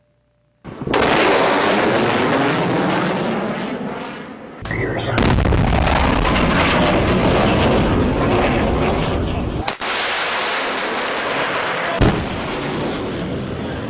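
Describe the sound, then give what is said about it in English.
A jet aircraft breaking the sound barrier as shock waves build up around it: loud booming roars that start abruptly, several sustained blasts of rumbling noise in succession, with a brief spoken word near the start. “And since air reflected off the jet is slower than the jet and the airflow around it, uh, these shock waves eventually lead to increased drag and cause a sound barrier, which sounds like this.”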